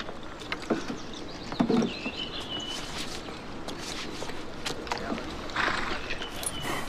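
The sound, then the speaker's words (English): Horse hooves clip-clop in an uneven, irregular rhythm, mixed with scuffing and a steady rustling background noise. No one speaks. “He loves to parade, but can mount his horse only from a stool because of his handicap.”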